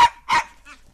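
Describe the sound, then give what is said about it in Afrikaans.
A small dog, walking past in the street with a man pushing a shopping trolley, yaps in quick succession, two sharp barks followed by a softer third, clear, with no one talking. “sê sy toe sy oom Koos in die straat sien verbyloop met sy winkeltrollie en sy klein hondjie.”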